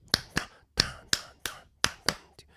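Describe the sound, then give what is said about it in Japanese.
Sharp finger snaps or claps tap out a syncopated clave rhythm, the rhythm typical of Latin dance and music, used to rouse fans in the stands; about eight crisp hits with uneven spacing and no voices, the last one softer. “もともとは、えー、ラテンの、えーまあ、ダンスとか音楽に特有に見られるクラーベという、えー、リズムですねだからこれをスタンドで煽るわけタンタンタン”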